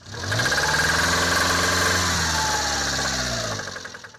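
A car engine, stopped in a parking lot with the hood open, is revved by hand at the throttle and holds a steady, loud rumble, with a rapid metallic knocking from deep inside the engine ticking through it, then eases off toward the end. No one speaks.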